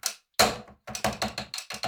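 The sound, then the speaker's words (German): A quick series of about eight button presses on the keypad of a hotel room telephone, fairly loud, each press a short clacky burst in an uneven rhythm with no talking. “Guck mal, hier ist auch ein Telefon.”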